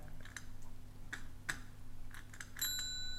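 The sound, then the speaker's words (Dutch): A foot-operated bell tapped gently a few times, giving soft, bright dings with a short ringing tail, the last one sustaining a little longer. Quiet, with no voices. “Ik heb hier een voetbel.”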